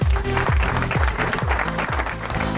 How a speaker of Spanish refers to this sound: Usted vio cuando es operador, se puso los aplausos.